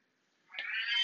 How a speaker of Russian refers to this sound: Фига себе тут кот, кот орет.